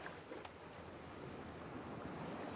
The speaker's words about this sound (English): It's waves. Surf. Ooh, mm-hmm. on the beach.